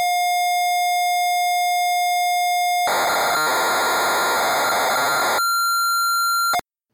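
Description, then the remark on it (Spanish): A computer tape loading: a steady high pilot tone, then a loud harsh screeching burst of data noise for a few seconds, followed by another clean tone before it cuts off. “dale al play. Ok, cargamos Retromanía 30”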